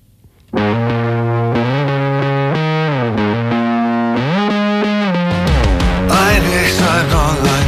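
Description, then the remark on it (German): A loud, heavily distorted electric guitar plays sustained chords over a steady low bass, shifting between a few held notes before a noisier, brighter crash of sound near the end. No voices. “wir reden gleich weiter und hören bis dahin noch den Titel …”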